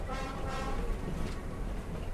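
A train rumbles steadily along the tracks through a narrow valley past farms and settlements, following the Rio Urubamba mountain stream: a continuous low, heavy roar with a faint metallic ringing on top, unbroken for the whole stretch.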